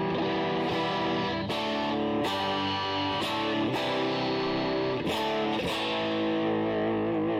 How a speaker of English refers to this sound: You guys can hear the guitar, okay, right? You guys, well, you can't see it. Hang on, you can't see the guitar, but you can hear it.